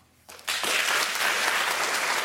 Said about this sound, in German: Applaus mit Publikum.